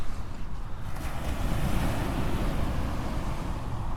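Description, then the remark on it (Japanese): Steady surf washes onto a shore with a continuous low rumble and hiss, waves breaking under gusty wind buffeting the microphone, with no voices. “波の音をお届けしています”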